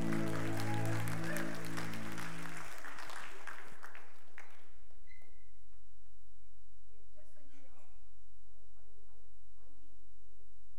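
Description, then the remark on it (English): An audience applauds loudly for about four seconds to welcome the pastor giving the evening message, a dense patter of many hands that quickly dies away, leaving a single voice talking over quiet room noise. “So let's give it up”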